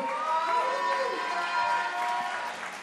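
An audience at a band's live performance claps and cheers in a steady, dense wash of sound, with shouting voices and whoops rising over the applause for a few seconds before it starts to fade.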